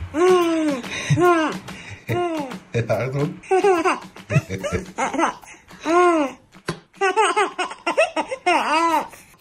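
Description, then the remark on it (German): A recorded baby boy laughs in a long run of high, squealing giggles, bursts following each other rapidly with brief gasping breaths between them, with no one else speaking. “Und sind glückselig, wenn sie Sachen hören wie diese.”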